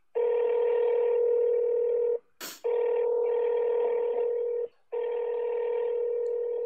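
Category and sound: signal or alarm, phone call connecting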